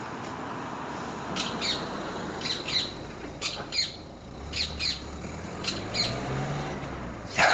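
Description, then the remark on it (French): A bird at a nest up above repeats short, harsh squawking calls in pairs at a steady pace, heard from a bedroom on Tuesday 24 March at 15:13, over a constant outdoor hiss with a faint low rumble of traffic. “J'entends un oiseau, j'avais envie de l'enregistrer.”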